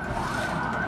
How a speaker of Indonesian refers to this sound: jadi buat teman-teman pokoknya ah, itu ambulans kita tuh wah ambulans partai